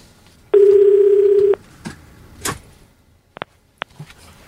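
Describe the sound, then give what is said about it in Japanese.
A single ringback tone on an outgoing phone call to someone travelling toward San Diego, still 650 km away: one steady, buzzy burst lasting about a second, followed by quiet line noise with a few faint clicks and soft knocks. “今日電話つながるでしょうかね。今のところまだ。お、お、読んでる読んでる。”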